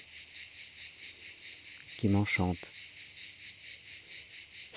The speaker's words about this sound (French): dès que le soleil pointe, Porquerolles euh, est empli du chant des cigales, de leur stridulation